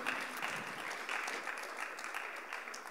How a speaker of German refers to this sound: Großartig, genau. Lass uns Ihnen einen Applaus geben.